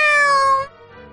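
A single cat meow, bright and drawn out, gliding slightly downward in pitch for over half a second before cutting off into a faint, quiet tail.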